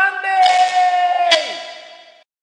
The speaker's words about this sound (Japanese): はい、あの、これ今、タイトルコールってやつを押してみたんですけれども、あの、かかりました、リバーブとか。iPhone からやるのは、あの、初めてなので、えー、全然わからないんですけれども。